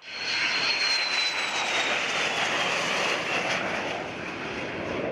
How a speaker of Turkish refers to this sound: Savunma Sanayi Başkanlığı bünyesinde yürütülen projeler kapsamında başkent Ankara'da bugün ve yarın F-16 savaş uçakları başta olmak üzere hava araçları kent üzerinde yüksek ve alçak irtifada uçuş yapacak.